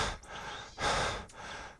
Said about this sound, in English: panting means to breathe in and out in a loud, heavy way. We tend to do this when we have to work very hard and need to take in more oxygen than usual.